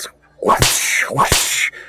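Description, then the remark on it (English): Two whip cracks in a row, each a quick swishing whoosh ending in a sharp, loud snap, spaced under a second apart with no talking over them. “I will pretend to be hurt by your whips.”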